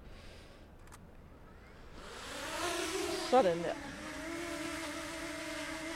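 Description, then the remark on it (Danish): A small drone's motors whine up into a steady, high-pitched buzz like a small irritated bee, rising in pitch as it lifts off, with a brief spoken remark partway through. “Kan I høre den? Den lyder som en bi. En lille irriteret bi.”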